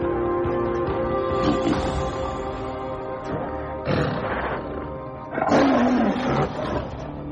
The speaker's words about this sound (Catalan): Este es el animal más poderoso de los bosques. Chavales, lo hemos conseguido. El tigre de bengala.